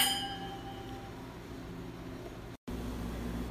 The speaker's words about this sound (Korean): 아, 또 와인을 마셔야겠네요. 짠 하시죠. 짠.